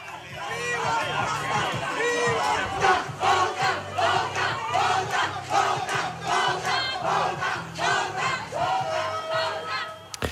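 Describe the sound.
A jubilant crowd cheers and hollers continuously, many voices shouting and whooping over one another at a steady loud level, with a low rhythmic hum running underneath throughout.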